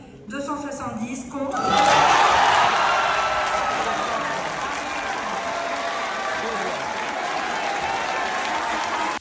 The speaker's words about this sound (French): Un tonnerre d'acclamations dans l'hémicycle a accompagné cette victoire serrée.